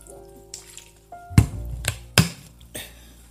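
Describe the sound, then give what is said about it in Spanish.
A tea bag is lifted out of already-heated tea after steeping, with a few soft wet drips and dull squishy knocks, spaced irregularly over a quiet background. “saquito de té dejar 10 minutos y sacarlo, como estoy haciendo en este preciso momento, porque yo ya el té lo tenía calentado y empecé a grabar este podcast eh, mientras el saquito estaba en el agua.”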